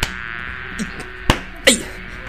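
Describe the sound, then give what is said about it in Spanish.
A thin, steady mosquito whine hums throughout, broken by two sharp slaps in quick succession near the end, with the buzzing continuing after them. “Si estos mosquitos nos dejan.”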